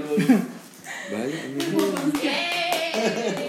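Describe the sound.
A small group claps, a quick, uneven patter of hand claps lasting a few seconds, mixed with cheerful voices and whoops over the applause.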